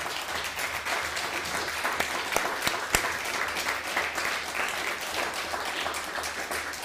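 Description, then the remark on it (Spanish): A crowd applauds steadily, a dense wash of many hands clapping at an even loudness for several seconds, with a few sharper individual claps standing out. “Nuevamente un fuerte aplauso para todas las naciones.”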